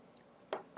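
Two quick, soft sipping slurps of homemade beer being tasted from a cup, a brief pause between them, with no talking and a quiet background.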